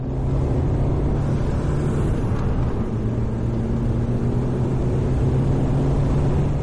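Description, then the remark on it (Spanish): A car drives at full speed by day, its steady engine drone and road roar holding a constant low hum throughout, loud and unbroken, with no voices. “De día, Mathieu conduce su coche a toda velocidad.”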